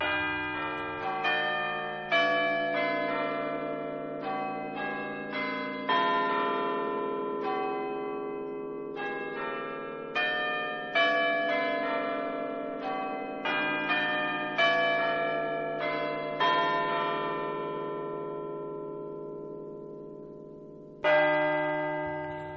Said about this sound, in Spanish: los cuartos de Guilford, que se pueden escuchar todavía hoy en día en la iglesia del Trinity College en, el Reino Unido. Estos son los cuartos de Guildford.